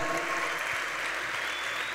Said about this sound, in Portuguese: Aplauda Jesus mais forte aí, aplauda Jesus mais forte aí, aleluia.